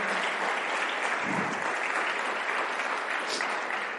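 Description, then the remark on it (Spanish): A church audience bursts into sustained applause for the Lord, a dense, steady wash of many hands clapping at once, holding at an even, fairly loud level for the whole stretch with no voices standing out. “Si lo crees así, dale un fuerte aplauso al Señor.”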